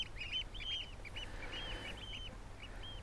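Eurasian oystercatchers call in a rapid series of shrill, piping notes, repeated over and over in quick bursts, with a low steady rumble underneath.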